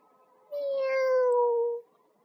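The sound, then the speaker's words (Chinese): A single drawn-out kitten meow, loud and clear against a quiet background, lasting just over a second with a pitch that slides gradually downward. “哎呀，小猫，你可别打坏了我的老茶缸啊！”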